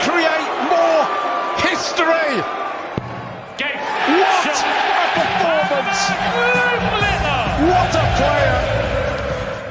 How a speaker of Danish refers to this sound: Det her det er lyden af den 16-årige Luke Littler, der slår den femdobbelte verdensmester Raymond van Barneveld ud af VM